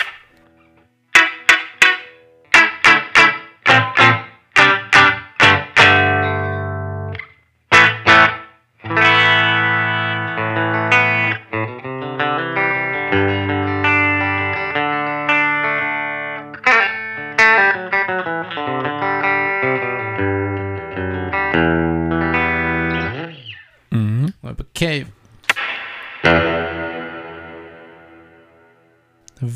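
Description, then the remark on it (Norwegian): A distorted, effects-heavy instrument plays sharp notes and sustained chords drenched in long reverberation, ringing out like a small tiled bathroom with hard echoing walls. No voices. “veldig lang etterklang”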